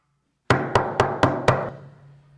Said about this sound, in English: You're not expecting anything. And all of a sudden you hear the normal knock.